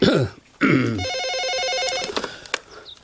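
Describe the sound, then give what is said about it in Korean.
A telephone rings with a rapid, high warbling electronic trill lasting about a second, preceded by a couple of short throaty vocal sounds and followed by a few faint clicks. “자, 형님 빨리 전화나 받으시오.”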